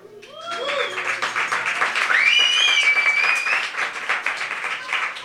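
Loud audience applause swells quickly into dense, steady clapping, with a few cheers and whoops rising above it before it starts to thin out toward the end.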